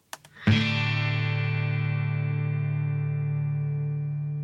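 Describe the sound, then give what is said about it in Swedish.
A couple of quiet taps lead into one chord on an acoustic guitar with a pickup played through an amplifier, both guitar and amplifier miked, struck firmly and left to ring with a full, slightly electric tone, fading only slowly. No one speaks. “akustisk gitarr pickup”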